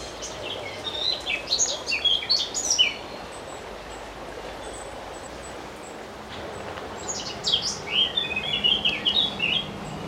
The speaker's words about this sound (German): Also der schwätzige Vogel das ist eine Mönchsgrasmücke. Ist ein recht häufiger Vogel in der Schweiz. Hat ein bisschen schwarz auf dem Kopf, darum eben Mönchsgrasmücke.